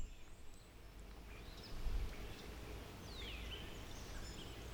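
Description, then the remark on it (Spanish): Scattered bird calls and chirps overlap faintly at dusk, heard from a terrace, several birds answering one another over a steady low outdoor rumble, with no voices. “he bajado la música porque me interesa mucho que se oigan los pájaros que oigo desde mi terraza.”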